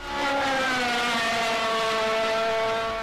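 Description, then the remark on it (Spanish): A loud engine roar from a Torino racing car speeding by, its droning pitch sliding slightly downward as it passes, sustained for a few seconds with no voices. “Mientras otro sector, identificado plenamente con las tradicionales cupecitas y su estirpe folclórica, no admitía intromisiones y manifestó su desagrado hasta haciendo volar algunos proyectiles al paso de los torinos.”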